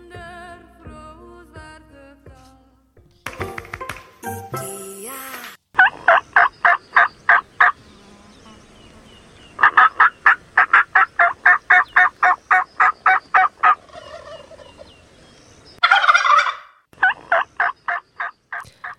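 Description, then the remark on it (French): A turkey gobbles in loud, rapid rattling bursts, repeated several times with short pauses between, preceded by a few other squawks and bird calls; no one speaks. “Bon, c'est bien gentil tout ça, mais ça manque de dindon.”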